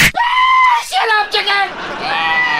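A person yells loudly in a studio in a few drawn-out, high-pitched shouts that rise and fall, with brief breaks between them.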